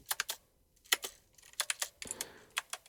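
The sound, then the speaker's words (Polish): Crisp computer keyboard typing in irregular bursts of quick clacks with brief pauses between groups, and no voices, as a Markdown heading is typed with keyboard echo turned on. “Czytaj pisane znaki tak. Hasz. Spacja. Krzyżyk, spacja.”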